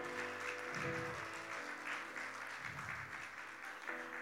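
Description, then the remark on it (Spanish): An audience applauds the Lord together, a dense, steady wash of clapping for several seconds, with a low musical drone sustained underneath. “¿No le usted un aplauso al Señor, hermano?”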